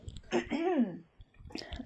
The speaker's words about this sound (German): Ich muss, muss mich kurz räuspern.